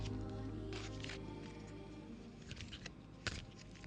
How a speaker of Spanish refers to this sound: barajar las cartas. Barajamos las cartas, barajamos las cartas y extraemos una, vamos a ver. La extraemos pasando la mano, pasando la mano por arriba.